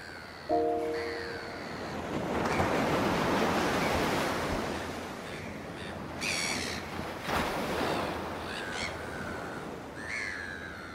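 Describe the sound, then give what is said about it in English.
Ocean waves wash and break onshore in a steady, broad roar that swells and recedes, with high-pitched bird calls chirping over the surf at intervals. No one speaks. “Let's go to the water's edge and see what the ocean is doing today.”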